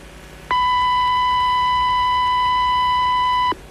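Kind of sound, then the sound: signal or alarm, radio time signal beeps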